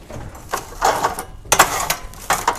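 Clunks and clicks of a microwave door being opened, a bread roll set inside, the door shut, then a few button presses, in irregular bursts with no talking.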